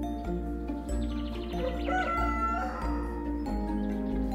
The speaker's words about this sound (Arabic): استيقظ جحا على صوت صياح الديك